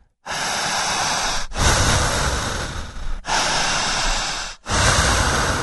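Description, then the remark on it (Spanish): Deep, forceful breaths during a breathing exercise, drawn in a steady cycle: four long noisy inhales and exhales with brief pauses between, loud and rushing, with no talking. “fuerte, vociferante, jadeante, intensa, profunda, incesante, una respiración honda. Al jalar el aire, fuerte, siempre fuerte.”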